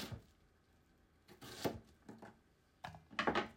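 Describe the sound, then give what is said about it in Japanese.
A knife chops a quarter of an onion into suitable-sized pieces on a cutting board for eggplant and onion miso soup: a handful of crisp knocks in an irregular rhythm, a quick cluster near the end, with no one talking. “切り今あの鍋なんか入れてんだけどね”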